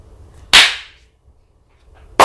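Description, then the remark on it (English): Two loud, sharp hand claps, spaced well apart, each a crisp smack with a brief ringing tail. A quiet pause sits between them, and no one speaks. “Clap.”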